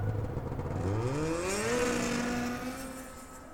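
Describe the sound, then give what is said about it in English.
A snowmobile engine revs up, its droning pitch climbing as it accelerates, then holding a steady whine and easing slightly as it pulls away. No voices. “And with that, Whit Roberts walked away and remounted his snowmobile.”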